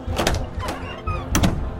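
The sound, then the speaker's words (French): A door is shut with a few short knocking bangs and rattles spread over about two seconds, the last impact the heaviest, with no talking. “Elle et moi, on va juste avoir une petite discussion en tête à tête derrière cette porte.”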